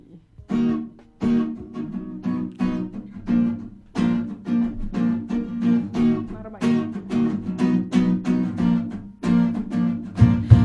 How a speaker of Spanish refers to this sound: Este tema eh, fue mi primer rap, más o menos hace tres años.